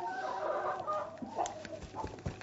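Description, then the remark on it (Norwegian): Several hens cluck and murmur in a steady, overlapping stream inside their coop, shut in with the hatch closed, with a few sharper calls breaking through near the end. No one speaks. “Sånn at de skal på en måte glemme at de har vært en annen plass. Hønsehjernene.”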